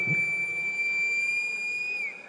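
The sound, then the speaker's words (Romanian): A single shrill whistle blast, blown by senator Diana Șoșoacă in the Parliament chamber during the session that abolished special pensions for senators and deputies, held steady for about two seconds, loud and piercing, then cutting off abruptly, with faint room noise underneath. “Nu numai vocea care tună și telefonul care transmite live pe Facebook, senatoarea Diana Șoșoacă s-a folosit azi și de un fluier la ședința în care Parlamentul a eliminat pensiile speciale ale senatorilor și deputaților.”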